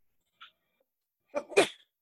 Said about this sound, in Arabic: يرحمك الله